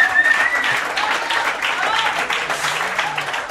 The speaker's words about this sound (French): On les applaudit.